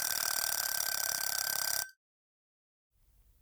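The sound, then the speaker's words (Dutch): A kitchen egg timer goes off with a loud, continuous rattling ring for about two seconds, marking the last second of three minutes of cooking time, then cuts off abruptly into silence, followed by a faint low rumble. “Pas toen herkende ik het geluid uit de keuken, zacht maar onmiskenbaar.”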